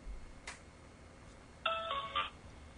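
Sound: phone call ringback tone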